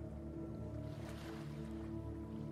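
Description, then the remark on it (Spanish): Ocean waves wash in continuously, swelling into one fuller breaking surge midway, over a steady low rumbling hum. No one speaks. “si somos amantes del mar, después de escuchar esto, solo quisiéramos tener el poder de teletransportarnos a una playa”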